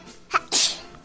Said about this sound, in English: Bless you.